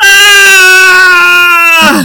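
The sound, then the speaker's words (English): A single loud, sustained high-pitched vocal scream held for about two seconds before the pitch suddenly drops away at the end, someone mimicking a shriek. “That's the sound of, of, of the Disverse screaming for your attention.”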